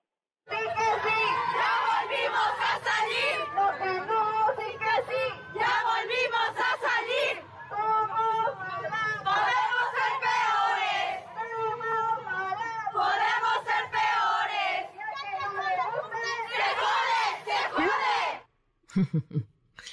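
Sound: protest crowd chanting slogans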